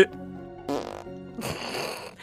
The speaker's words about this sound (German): Na, immerhin war dein Furz nicht fest.